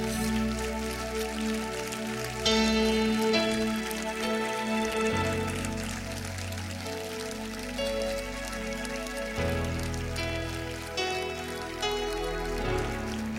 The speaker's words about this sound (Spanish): Dale un fuerte, fuerte aplauso a Jesús.